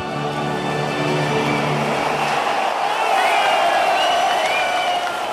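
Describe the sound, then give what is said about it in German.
A large football stadium crowd of Borussia Dortmund (BVB) fans roars continuously at a home match against Arsenal London as the teams walk out for kick-off, a dense wash of cheering and shouting that swells slightly toward the end, with a low rumbling hum underneath for the first couple of seconds. “Die Fans erzeugen eine Gänsehautatmosphäre.”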